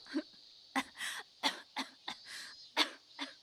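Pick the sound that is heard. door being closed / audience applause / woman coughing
woman coughing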